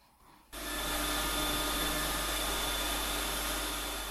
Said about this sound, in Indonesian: Deru mesin pemilah sampah terdengar sedari pagi di tempat pemrosesan akhir TPA Jabon di Sidoarjo, Jawa Timur. Sampah seperti plastik dan kertas karton dipisahkan untuk diolah menjadi pelet hingga briket.